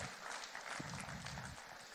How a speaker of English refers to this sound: So God just slipped that under the radar, which is awesome. Let's give the Lord a big clap for that. It's awesome.